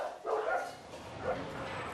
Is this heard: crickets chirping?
no